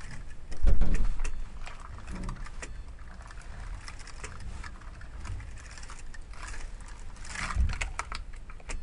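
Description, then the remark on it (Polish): Irregular key clicks and taps as keys are pressed on an Alva BC640 braille display, with heavier thumps near the start and end, over a steady faint electronic whine and hiss from the display. Nobody speaks. “Kiedy ja przesuwam o kolejne o kolejne mm, panele, czy jakikolwiek klawisz nacisnę w monitorze Alva BC640.”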